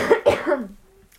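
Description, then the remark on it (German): A wet-sounding cough into the crook of a person's arm, in two quick bursts, the second trailing off into a brief rattly exhale before quiet. “Nein, der war aber nicht trocken. Das Husten.”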